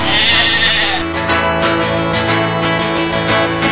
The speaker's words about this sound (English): The sheep it did bleat, I heard him thus speak.